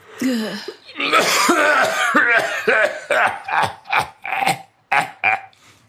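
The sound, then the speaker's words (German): A voice imitates a wheezing smoker's cough: a strained, rasping wheeze, then a rapid run of about eight loud hacking coughs that trail off at the end. “im Mundwinkel eine glühende Zigarette, deren stechendes Aroma alsbald den Weg in mein Schlafzimmer fand, im Rachen ein, einen keuchenden Husten von biblischen Proportionen.”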